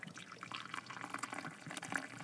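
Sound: coffee poured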